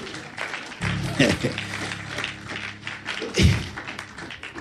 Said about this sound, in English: Clap your hands for God.